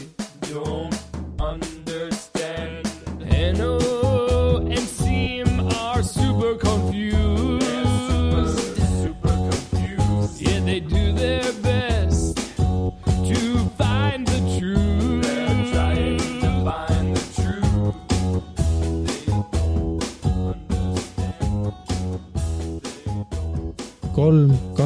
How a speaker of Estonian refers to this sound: aga kust see tuleb? aa, mul on siin all mingi player ja seal on mingi teine laul muidugi ma kuulasin mingit hoopis teist laulu